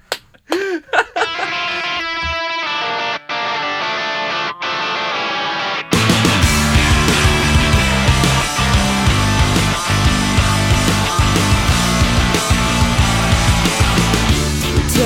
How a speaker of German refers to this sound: hören uns das mal an und dann vielleicht wissen wir hinterher, warum der Song …